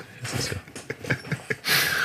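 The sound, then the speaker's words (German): Short, breathy snoring snorts repeat in an uneven rhythm, fairly quiet, then give way to a steady hiss of air escaping at the end. “Hör mal, wie der schnarcht, entweicht nur noch die Luft.”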